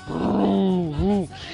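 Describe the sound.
A girl of about 8 to 10 years old, making a video, imitates a revving car engine with her voice: a loud, sustained throaty roar that dips briefly and then rises again, lasting just over a second.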